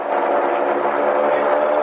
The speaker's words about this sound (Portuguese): Agora ele reativa os motores, estamos fazendo uma curva